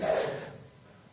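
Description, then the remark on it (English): A single sneeze: a sudden, breathy burst of noise that is loudest at the start and trails off quickly over about half a second, with no talking. “Bless you.”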